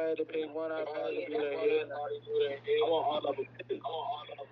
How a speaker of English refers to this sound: Somebody move away from the phone because it's a um interference. So everybody mute their phone.